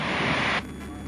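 Steady engine drone inside a Piper Cherokee's cockpit in flight, with a loud hissing layer that cuts off abruptly about halfway, leaving a quieter continuous hum. No one speaks.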